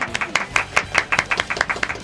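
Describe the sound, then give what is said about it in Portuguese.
A small group of classmates from a telematics course claps steadily for the winner of a quiz game, a dozen or so sharp, uneven hand claps forming light applause with no voices over it. “Teve torcida no Gamer de hoje, né?”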